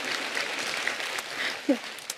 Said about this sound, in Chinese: 对，哇，好开心，竟然有掌声。